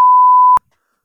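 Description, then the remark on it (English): A single loud censor bleep over profanity: a steady, pure mid-pitched tone lasting about half a second, starting and stopping abruptly with a click, then silence. No voices are audible. “I had to censor everything you just said because that was so wildly inappropriate.”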